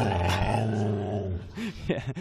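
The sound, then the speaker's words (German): A long rooster crow from a radio show's wake-up signal, switched on in the morning by a listener, fills the first second or so, then a dog answers with aggressive, rumbling growls broken by a couple of sharp snarling bursts. No one speaks. “Ähm, ich wusste gar nicht, dass der Hahn so eine aggressive Wirkung auf Hunde haben kann.”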